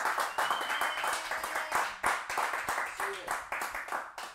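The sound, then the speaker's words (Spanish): An audience at a Spanish-language church service applauding Jesus steadily for several seconds, a dense patter of many overlapping hand claps with some sharper individual smacks, while indistinct voices carry along underneath. “Vamos, si usted lo cree en casa, den un aplauso fuerte a Jesús.”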